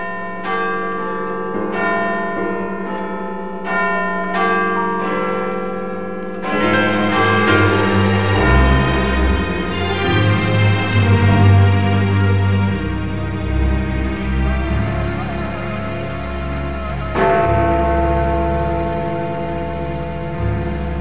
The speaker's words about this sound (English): And to mark that moment, we will cross live now to Big Ben here in London as the one o'clock deadline approaches.